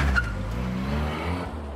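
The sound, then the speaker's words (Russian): A police car speeds off, its engine roaring steadily with a rising, harmonic whine and a brief tire squeal near the start, loud throughout and with no voices. “Затем он вернулся на свое место на полке, а полицейская машина умчалась.”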